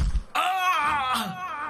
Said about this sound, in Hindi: एक बार फिर विशाल के चीखने की आवाज पूरे होटल राजमहल में गूंज उठी